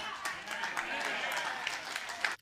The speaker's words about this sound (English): A little bit of a lackluster clap there, but okay.